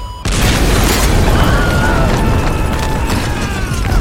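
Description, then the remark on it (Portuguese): A sudden, loud explosion of detonated explosives bursts in after a split second of quiet, then a continuous heavy rumble with creaking, groaning metallic tones as two towers collapse onto a military camp. “Puxou o controle dos explosivos, olhou diretamente para as duas torres e acionou o botão.”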